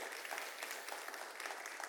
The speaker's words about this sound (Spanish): ¿Cuántos creemos que Dios todavía tiene el poder de cambiar la vida del ser humano? Dele un aplauso al Señor si usted lo cree.